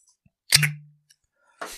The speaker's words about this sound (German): Oha. Oh, oh, oh. Fump, da geht die Buddel auf. Mhm. Tja, äh, Sauvignon Blanc. Was hast du? Sauvignon Blanc. Ah. Und jetzt kommt's aus äh, New Zealand.